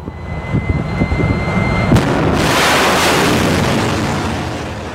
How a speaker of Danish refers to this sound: da det der missil det tordnede af